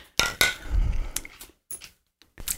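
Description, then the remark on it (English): Glasses of a cocktail clink together in a toast, a handful of sharp, bright taps with a high ringing tone, spread unevenly over a couple of seconds with faint low rumbling in between and no talking. “And so we're going to take a sip of this one right now. Cheers to episode 20, everybody.”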